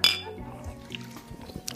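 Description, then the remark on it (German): A bright glass clink rings out at the start as glasses of a sour apple drink touch in a toast, followed by softer clattering and faint voices. “Ähm, ich würde sagen, Prost. Prost. Prost. Prost.”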